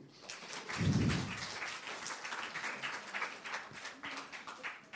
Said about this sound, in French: Je vous demande de bien vouloir applaudir nos quatre panélistes avant de vous les présenter.